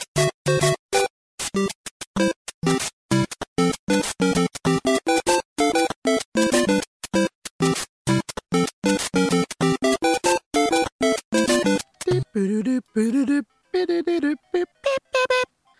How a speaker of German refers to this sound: Wir müssen jetzt natürlich auch mal hören, wie dieses Main-Theme klingt.